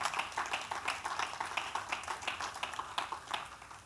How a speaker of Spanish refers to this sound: Alguien le da un aplauso al Señor esta noche.